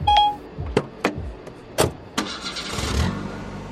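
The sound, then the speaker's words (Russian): A car chimes, then a few sharp clunks and clicks, before the engine comes up and settles into a steady running rumble as the car sets off on a drive to a country complex among vineyards. No one speaks. “В загородный комплекс на виноградниках осталось ехать 40 минут.”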